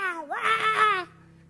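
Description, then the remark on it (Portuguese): A voice imitates a newborn girl's wail at her birth: one short, strained cry that rises and wavers, then cuts off abruptly, fairly loud, with no other talking. “E a Louise nasceu, como todos os outros, nasceu berrando já.”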